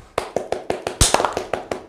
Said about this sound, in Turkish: Alkışlasam olur mu?